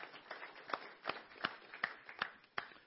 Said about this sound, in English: Amen. Let's give God a round of applause for that.